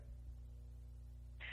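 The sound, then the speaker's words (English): Call audio drops out into dead air, blamed on the modem: only a low, steady electrical hum with no voices, ending in a short burst of hissy, static-like noise. “Oh, you cut out for a second, but you're still here.”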